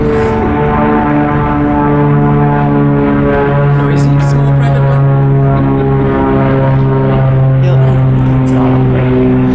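A small private propeller plane drones overhead, its loud, steady engine hum holding layered buzzing tones at an even level through the whole stretch.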